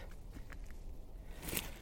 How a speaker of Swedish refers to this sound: Jag är lite besviken för jag tänkte att jag skulle höra fågelsång överallt nu men så fort jag slog på här så tystnade de allihop. Det enda som hörs är mina steg.